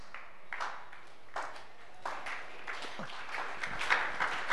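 An audience claps in loose, uneven bursts, a scattered patter of hands that swells slightly toward the end, fairly soft overall and without any voices.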